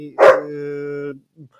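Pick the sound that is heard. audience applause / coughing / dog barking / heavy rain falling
dog barking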